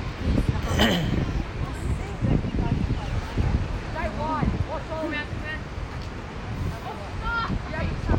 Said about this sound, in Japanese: 今回はビーチの音を収録したいなと思って来たんですね